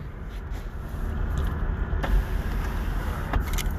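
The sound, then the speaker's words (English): Steady low rumble inside a car, with a continuous motor-like hum like a power window moving and a couple of faint clicks near the end; no one speaks. “Um, this is in the car”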